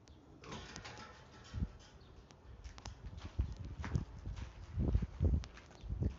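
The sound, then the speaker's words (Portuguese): Irregular footsteps crunch and thud along the ground while walking toward a gate, quickening and growing louder toward the end, with faint outdoor background and no talking. “Agora a gente vai andando até o portão.”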